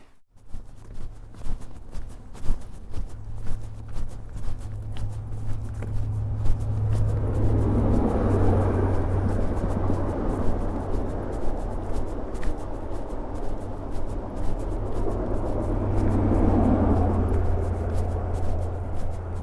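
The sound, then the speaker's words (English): Steady low rumble of traffic in a town street in Par, with vehicles swelling past twice and fading, plus faint scattered clicks and background hum throughout; no voices. “This is how Par sounds, but I won't play very much of it.”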